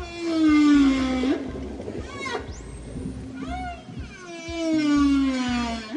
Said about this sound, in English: Any guesses? It's a whale, but the whale I'm talking about today ran into some trouble.